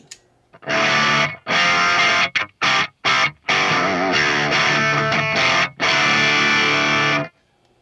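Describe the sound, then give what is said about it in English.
Electric guitar played through the clean channel of a Revv amplifier: loud, full strummed chords ring out, broken by a few quick choppy stabs, then two long sustained chords before fading out. No talking. “Um, so like here, uh, this is the clean channel on the Revv.”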